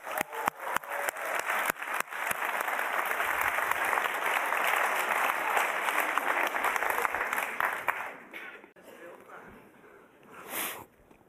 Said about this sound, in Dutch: Kom even op het podium. Your 10 minutes of fame. Kom maar. Ja, applaus.